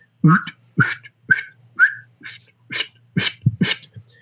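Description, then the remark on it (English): A duck call blown with pressurized air, extending a quack out in a steady run of about eight short, raspy quacks, each a quick honking burst, loud with no talking. “So that's a quack, extending a quack out.”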